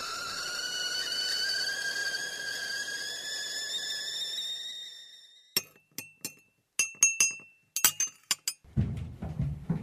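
A steady, high whistling tone holds for several seconds, then a cup and glass clink together in a quick, irregular run of bright, sharp taps as black tea is made, followed by a low rushing noise at the end.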